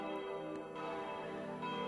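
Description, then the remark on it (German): Four church bells ring together from a massive tower, in harmony with the bells of the neighbouring tower of a Protestant church a few steps away. The result is a dense, sustained peal of overlapping tones with rich ringing overtones, steady and fairly loud with no voices. “Vom massiven Turm läuten vier Glocken, im harmonischen Einklang mit dem Geläut aus dem benachbarten Turm, denn nur wenige Schritte entfernt steht die evangelische Kirche.”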